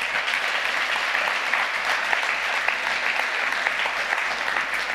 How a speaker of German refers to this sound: Dürfen wir auch nochmal den Leuten Applaus geben, oder?